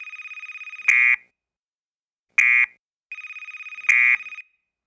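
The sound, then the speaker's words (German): In the control room of Apex Communications, the crisis telephone rings with a bright, buzzing electronic trill in repeated bursts, each ending in a louder, harsher blast, separated by short silences, as a siren sounds. No one speaks. “Im Kontrollraum von Apex Communications blinken Warnlampen, eine Sirene ertönt und das Krisentelefon klingelt.”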